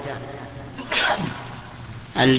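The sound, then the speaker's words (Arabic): Two abrupt, explosive sneeze bursts about a second apart, the second louder and fuller, with quiet voices murmuring in the background. “رحمك الله”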